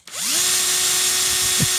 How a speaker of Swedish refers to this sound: Eh, idag ska vi prata om Bosch borrmaskin. Bosch borrmaskinmodell PSR 1800 Li 2. Så här, så här låter den för den eh, ljudintresserade.